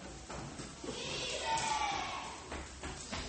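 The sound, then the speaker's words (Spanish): A series of heavy thuds on the door of a house in the middle of the night, a few quick knocks, then a pause and several more, over a steady rushing, eerie background drone. “A la mitad de la noche, de repente escuchan golpe en la puerta de la casa.”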